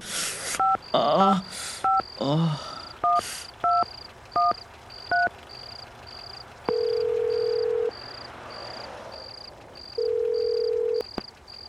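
A rapid series of short mobile keypad dialing beeps, paired tones tapped in quick succession, followed by two long ringing tones, with a steady high-pitched pulsing beep running throughout.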